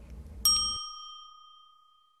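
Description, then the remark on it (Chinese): A single bright ding chime, the cue for children to say their line in a question-and-answer game, rings out after a brief low rumble, its clear high tone lingering and slowly fading over about two seconds. “小朋友们听到“叮”的声音后，请说出你的那一句。”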